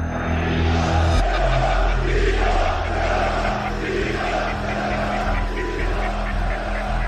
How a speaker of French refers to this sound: Des dizaines de milliers de drapeaux s'agitent au-dessus de la foule. Sur scène, Recep Tayyip Erdogan, comme indifférent, laisse hurler ses partisans sans les interrompre.